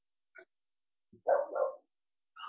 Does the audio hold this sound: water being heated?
no